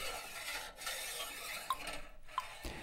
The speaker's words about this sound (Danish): Det knækkede saltlag falder med lethed ned på bunden af sydepanden, og med en stor salterive skubbes saltet ned i enden af panden.